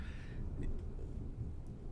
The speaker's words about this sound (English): It's thunder